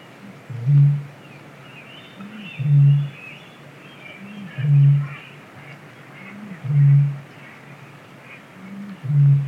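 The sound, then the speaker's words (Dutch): A Eurasian bittern booms repeatedly: five deep, foghorn-like hoots spaced about two seconds apart, resonant and low, over a steady hiss of marsh ambience with faint birdsong. “Maar ook de eerste keer dat ik hem hoorde hoempen. Ja, zo. Dat misthoornachtig geluid.”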